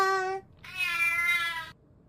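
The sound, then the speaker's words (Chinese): A cat meows twice: a short, high-pitched meow, then a brief pause and a longer, louder, drawn-out meow with a rising and falling tone. No speech is present. “原来呀、啊，他们躺在的不是芒草，是一只绒绒猫呢。”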